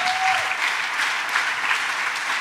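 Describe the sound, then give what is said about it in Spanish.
An audience claps steadily throughout, applauding the Lord for the opening of a new nursery, a dense, sustained wash of applause from many hands, fairly loud, with no voices standing out above it. “Dele un aplauso Señor, porque abierta es maravillosa.”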